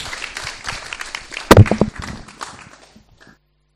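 An audience breaks into applause, a dense crackling wash of many hands clapping with a few sharp louder claps midway, then thinning and dying away into silence.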